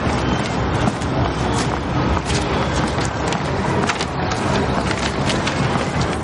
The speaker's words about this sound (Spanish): El autobús escolar se marcha.